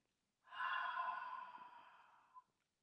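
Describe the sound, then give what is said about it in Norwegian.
A long, deep breath pushed out through the mouth during a breathing exercise, after breathing in through the nose: a soft airy whoosh lasting about two seconds that slowly fades, ending with a faint click of the lips. Heard alone. “Og ut gjennom munnen.”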